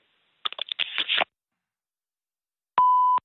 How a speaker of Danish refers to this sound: Du er velkommen til at lægge en besked efter klartonen, no. eller sende en sms, så vender jeg tilbage så hurtigt jeg kan.